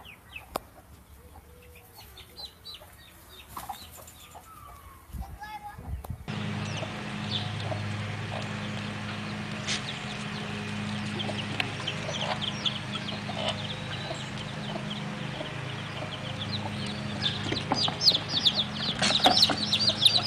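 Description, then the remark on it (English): A hen clucks among her chicks, whose rapid high peeps overlap in a busy chorus over a steady low hum that grows louder after the first few seconds. “how he wanted to gather Israel like a hen gathers her brood, her chicks”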